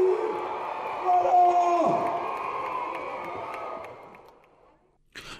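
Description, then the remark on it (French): A crowd of children at a ceremony cheers and shouts loudly, with high whoops rising over a dense wash of applause that gradually fades out, then a brief burst of noise at the very end. “on les applaudit.”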